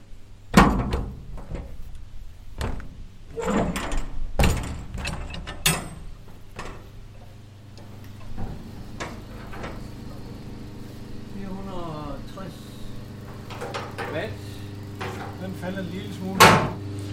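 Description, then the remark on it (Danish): The heavy metal door of an old radio transmitter cabinet, as big as a large telephone booth and housed in a container, is worked open: a series of loud mechanical clunks and latch rattles, spaced irregularly, then a final thunk, over a steady low electrical hum. “lad os nu se, når vi åbner”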